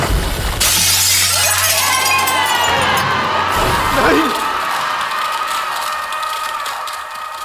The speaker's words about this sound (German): Die Zeit schien fast stehen zu bleiben, während ich reglos beobachtete, wie das Spiegelglas und Josinés Gestalt in tausend Scherben zerbrachen.